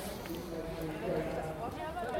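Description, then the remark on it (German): Horses approach the starting box from further back at a crowded event grounds, their hooves clip-clopping faintly in a steady rhythm beneath a busy wash of crowd noise and murmuring voices. “Die Pferde sind noch nicht hier. Aber die kommen da hinten schon an”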